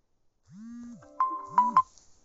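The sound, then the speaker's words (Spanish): A phone alarm rings with an electronic melody: two low swooping tones and a few bright, sharp pings in a quick, uneven pattern, with no talking. “Pero en fin, una alarma, perdón.”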